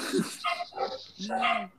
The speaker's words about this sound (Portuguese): Espero que não se importe a cachorrada latindo. Tá? Não, tranquilo, de gosto de cachorro.